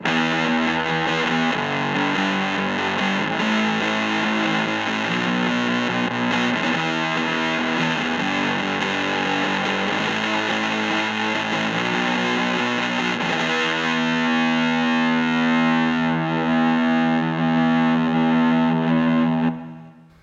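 A fuzzy, garage-toned rhythm guitar played through a pep box plays steady power chords for about twenty seconds with Valhalla Room reverb, recorded with a Tul G12 microphone; thick and sustained with a roomy reverb tail, loud and alone with no voices, cutting off at the end.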